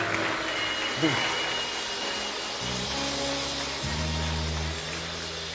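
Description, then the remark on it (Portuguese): A church audience claps steadily for a family of the church, a dense, even wash of applause lasting several seconds, while low sustained musical tones come in partway through and keep changing underneath. “Aplauda Jesus por essa família.”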